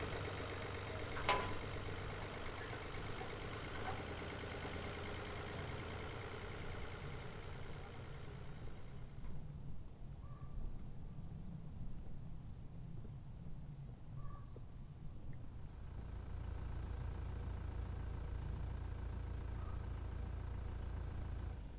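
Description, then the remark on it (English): A pickup truck engine drones steadily throughout, a low continuous rumble with shifting road noise, and a few faint bird calls briefly surface in the middle. “The next morning, he hopped into his truck and headed back to his cabin out in the middle of nowhere.”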